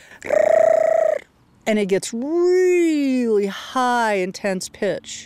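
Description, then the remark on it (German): A llama that guards goats and sheep gives a series of loud, shrill alarm calls warning of danger: a steady high wail, then a long wavering cry broken by short stuttering bursts, with no talking. “Wenn es Anzeichen von Gefahr gibt, macht er diesen interessanten Laut.”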